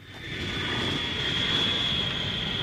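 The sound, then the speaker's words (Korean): A steady jet engine roar from an airplane flying to Japan, with a broad rushing rumble and a sustained high whine running throughout, fairly loud and continuous with no talking. “그 길로 정희 씨는 다시 일본 비행기를 탔습니다.”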